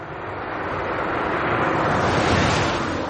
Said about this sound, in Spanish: mientras el coche de Caco atraviesa la carretera.